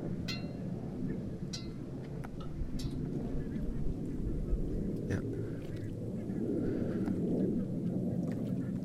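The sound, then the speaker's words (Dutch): Several birds call in short, scattered bursts very close by, somewhere in the reeds, over a steady low outdoor rumble like wind or an engine; a person briefly says a single word. “Nu zijn er vogels te horen. Die zitten heel dichtbij, anders zou ze niet kunnen horen.”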